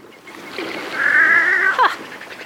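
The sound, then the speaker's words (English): A wood duck, one of a pair that has just landed on the water nearby, gives a single drawn-out, mewing call that rises and then drops away at the end, over a soft outdoor background hiss. “and that's a pair of wood ducks who just landed on the water nearby. Can you hear them calling?”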